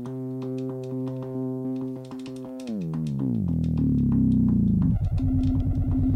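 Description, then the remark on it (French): A small electronic keyboard plays a steady buzzy synth tone, then slides downward in pitch and settles into a pulsing, echoing note from a delay effect. No one speaks. “Avec un genre de délai comme ça, qui est pas mal.”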